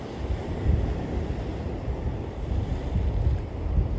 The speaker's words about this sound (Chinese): 听着海声，海浪，海浪拍打的声音。哦，今天给海风吹个够。